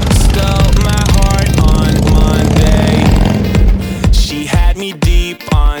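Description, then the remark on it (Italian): A loud Harley-Davidson motorcycle engine starts, rumbles and revs for several seconds, with a dense, throaty roar and sharp bursts of throttle toward the end. “Eh, anch'io con la moto, anch'io con l'Harley Davidson. Metti in moto, metti in moto, vai che partiamo.”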